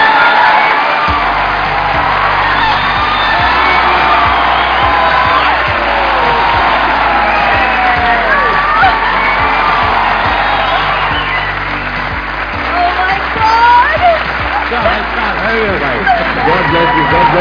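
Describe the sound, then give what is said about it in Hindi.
An audience cheers and claps steadily for the whole stretch, welcoming the real-life couple Amrita Rao and RJ Anmol; dense and loud, with scattered whoops and shouted voices rising over the applause and a low steady hum underneath. “please gave an energetic and warm welcome to Amrita Rao and आर्जन मोल”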